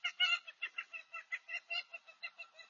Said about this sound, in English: And there's the chickens. See, I told y'all, y'all are going to hear chickens and geese and ducks and turkeys.